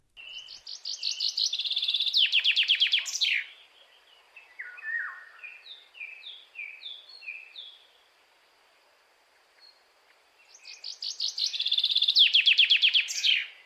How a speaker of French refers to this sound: C'est le pinson des arbres. Écoutez, c'est celui qui produit deux fois des trilles.